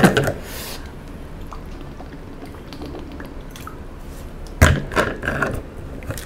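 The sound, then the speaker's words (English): Someone drinks water, with quiet wet swallowing and mouth sounds between a soft knock at the start and another sharper bump near the end. No one speaks. “how many times you don't drink water let me actually drink water”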